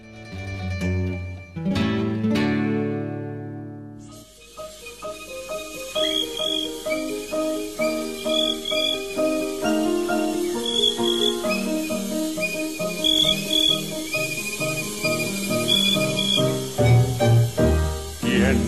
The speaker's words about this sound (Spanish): un halo mágico de las poderosas bocinas de radios bellísimos, de los llamados radios de capilla, bueno, aunque también había cuadrados o, alargados, surgían los sonidos de los grillos.